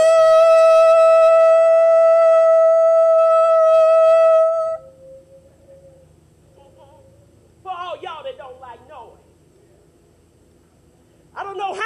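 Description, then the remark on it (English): A long, loud ram's horn blast holds one steady, bright pitch for about four and a half seconds. It then cuts off into a low murmur with short bursts of voices. “And it shall come to pass that when they make a long blast with the ram's horn, now can you get the picture of what a long blast?”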